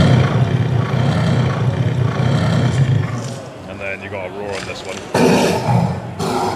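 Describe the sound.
A deep, gravelly monster roar sound effect, triggered from a glove by pressing a pressure sensor with the thumb, rumbles loudly and steadily for several seconds, then cuts off; a man speaks briefly as it fades, followed by sharp bursts of noisy growl.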